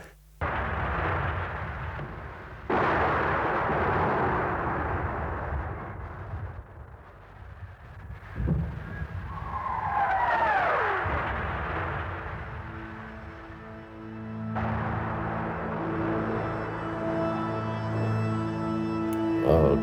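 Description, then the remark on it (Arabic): Heavy booms of night-time shelling and gunfire, recorded on cassette tape placed by a window, thud out at intervals over a constant low rumble, with a falling whistle midway and a steady droning hum toward the end; no one speaks. “كنت سجلهم يعني كنت قلها لامي طيب ما رح وتر لك ما رح اقعد اتفرج بس رح حط الكاسات اكبس ريكورد وحطها حد الشباك وبنطر ساعه وبروح بغيره عندي كان شي خمس ست كاسيتات قصف وقواص كل الليل عندي اياهم لليوم”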